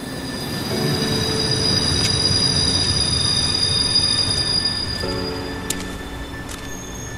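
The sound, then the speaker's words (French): A train rolls through Brussels' Gare du Midi station on an evening of light rain, its wheels letting out sustained high-pitched metallic squeals over a steady low rumble, with brief sharper screeches near the end and no voices. “Bruxelles, gare du Midi, un soir de fine pluie.”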